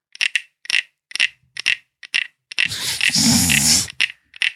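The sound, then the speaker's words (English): A wooden frog toy scraped wood on wood: a steady run of short, ratcheting rasps, then one longer drawn-out scrape before two final quick strokes, fairly loud, with no talking. “No, it sounds like he's scraping wood over top of another piece well, of maybe wood.”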